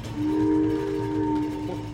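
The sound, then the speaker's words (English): A train crosses a railway bridge over a gorge with a 500-foot drop into Elvira River, a steady heavy rumble of wheels on track under a sustained tonal whine, loud and continuous throughout with no voices. “They're approaching another bridge over the gorge with a 500 foot drop down into Elvira River.”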